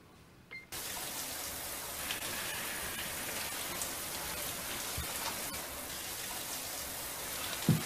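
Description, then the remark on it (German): A steady hiss of running shower water starts abruptly after a brief quiet moment and continues evenly, with a faint knock near the end. “Ja, ich komme bald, ich gehe nur schnell in die Dusche und dann sieht sie ihr alter Ego zwei Jahre später in der Dusche hocken, völlig zerstört”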